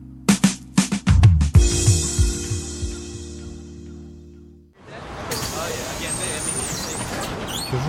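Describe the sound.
A bus rumbles with heavy low thuds and a fading engine drone, then hissing air brakes and high squeals rise over a steady street noise with faint background voices.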